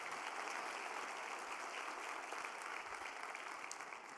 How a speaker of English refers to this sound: Let's give our musicians a hand again. and also the choir. So good to have you back after a long summer. Let's give the choir a hand or clap for yourself.